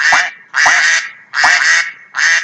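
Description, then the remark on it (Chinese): Four loud, raspy quacks from ducks in a pond in a steady rhythm, each a harsh nasal burst of about half a second with short gaps between. No voices accompany them. “就像是池塘里的鸭子，每天不停地叫，”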